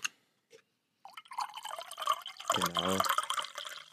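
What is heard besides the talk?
tea being poured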